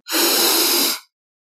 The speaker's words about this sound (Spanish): Algo que muchas veces las personas piensan que hacer una respiración profunda significa inhalar fuertemente por la nariz, donde se genera un sonido como el siguiente.